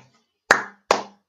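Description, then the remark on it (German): Three sharp hand claps at a slow, steady pace, each a loud crisp smack with a short ringing tail; the third is cut off at the end. No one speaks. “Ich möchte einmal wegen dieser grandiosen Überleitung klatschen.”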